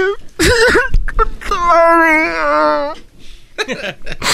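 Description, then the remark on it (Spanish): A man cries, with a few choked, sobbing breaths followed by a long, wavering wail that trails off into more broken sobs. “Ando llorando.”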